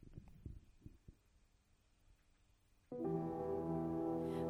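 A pop song intro: a few soft, low heartbeat-like thumps over near quiet, then a sudden loud, sustained layered synth chord bursts in and holds steady to the end.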